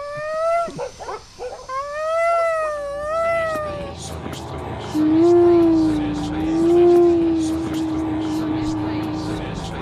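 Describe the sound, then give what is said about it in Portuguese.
A conch shell horn blows a long, steady, low note at 10 in the morning, while dogs all around howl and bark repeatedly in a wavering chorus that begins before the horn and carries on around it. “é só neste país é que tu podes tocar búzio às 10 de manhã e ter cães a toda volta a ladrar.”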